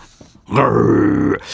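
A single low, sustained growl of a calm, non-violent Frankenstein monster, a handmade radio sound effect, deep and steady rather than aggressive, swelling in abruptly and holding for nearly a second before cutting off, loud.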